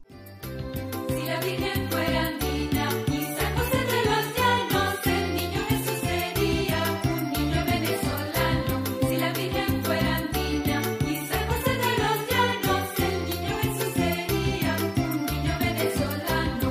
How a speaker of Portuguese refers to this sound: Neste aguinaldo, que é como se chamavam estas canções populares, conta-se a história do que teria acontecido com o nascimento de Jesus, não na Palestina, mas na Venezuela do século XX. Vamos ouvir um bocadinho.